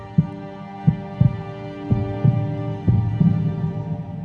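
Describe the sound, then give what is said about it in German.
A rapid, rhythmic whooshing heartbeat of an embryo's newly developed heart on an ultrasound monitor, beating more than twice as fast as an adult's heart, pulsing steadily with a low hum underneath and no voices. “Zunächst schlägt das frisch entwickelte Herz mehr als doppelt so schnell wie das ausgewachsene Herz eines Erwachsenen.”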